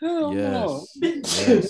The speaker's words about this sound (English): Bless, Bless you.